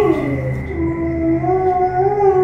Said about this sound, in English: I stopped again, catching my breath in short gasps, my ears straining to hear the location of the sound. It sounded as though the dog was crying in pain.